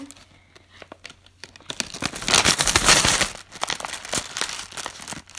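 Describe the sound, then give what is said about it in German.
Paper crinkles and rustles in a dense burst of crackly handling as something is covered with paper and a hand reaches in with eyes closed, loudest in the middle, then continuing in lighter scattered crinkles as it settles. “Ja, ich überdecke Brunnen mit Papier. Mit Augen zu rein.”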